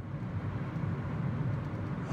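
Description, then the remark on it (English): A car speeds past with a steady, low engine and road rumble that stays fairly loud and even throughout, with no voices. “Oh, Zach's driving right past me. Oh my God, he's speeding.”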